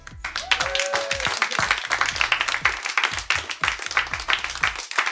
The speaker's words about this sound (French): Merci au public qui était génial ce soir. Vous pouvez vous applaudir.